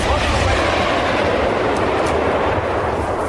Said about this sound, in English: As people videoed the fire which was already burning at the oil depot, there was a huge explosion.